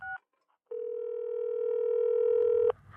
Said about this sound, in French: Et comme par hasard, mon père n'a pas décroché son appel. Elle a essayé deux, trois, quatre fois, mais rien.